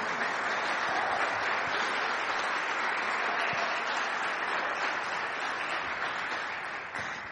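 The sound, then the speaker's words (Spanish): A church audience breaks into sustained applause, a dense, steady wash of many hands clapping together that holds strong for several seconds before tapering slightly at the end. “Y yo quisiera que le diéramos un aplauso”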